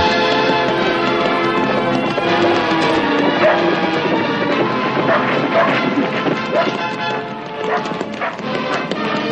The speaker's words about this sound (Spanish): Brittle y el corneta galopan hacia él, seguidos de uno de los perros del batallón.